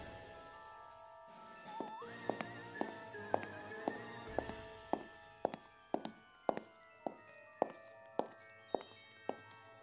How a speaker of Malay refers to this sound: Tiba-tiba Zaliah mendengar sekali lagi bunyi tapak kaki itu uh, berjalan.